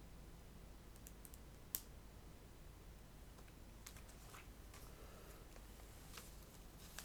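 Small plastic bricks click and snap together in a quiet series of sharp taps, with one louder click standing out early and lighter clatters scattered throughout. No one speaks.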